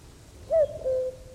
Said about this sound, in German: Ah, Kuckuck